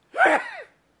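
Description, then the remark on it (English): A single fairly loud sneeze, a short voiced burst with a breathy rush that tails off in about half a second, with no talking around it. “Bless you.”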